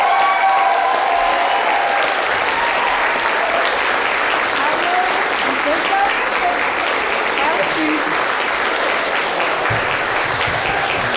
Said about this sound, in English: and so, for those reasons, we're going to give a, a really warm round of applause to Scott Thompson. Give it up for Scott.